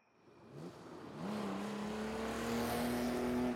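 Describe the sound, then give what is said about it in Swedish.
A car engine revs up and accelerates as the car drives very fast along gravel roads in the dark, its whine climbing in pitch over a steady rushing roar of tires on the rough road, growing louder throughout. “Den for fram ohyggligt snabbt på grusvägarna i mörkret.”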